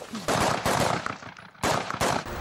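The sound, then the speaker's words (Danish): Loud gunshots crack out in an irregular sequence, roughly four sharp blasts with ringing echoes between them, as at a shooting range, with a faint voice in the gaps. “spædt skud øh, uden at sikre.”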